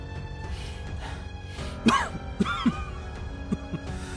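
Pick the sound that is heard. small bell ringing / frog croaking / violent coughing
violent coughing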